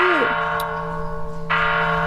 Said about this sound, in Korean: 아 길다 길어 정말 종소리.